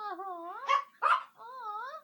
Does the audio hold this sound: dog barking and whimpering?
yes